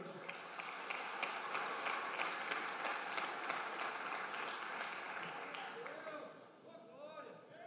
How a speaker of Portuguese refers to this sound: Vamos dar um aplauso aí.